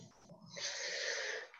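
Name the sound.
deep breath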